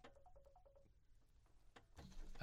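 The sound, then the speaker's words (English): A phone rings with a quick series of short, repeated electronic beeps, fairly faint, then gives way to a louder burst of rustling noise. “I have no idea whose phone is that mm, I don't know it's not mine but I, it feels like the sound is from here but it wasn't my phone.”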